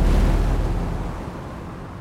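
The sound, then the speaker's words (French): Storm wind on Roanoke Island roaring loudly and continuously, a heavy low rumble under a broad airy hiss, holding steady and then easing slightly toward the end, with no voices. “Et quelle tempête”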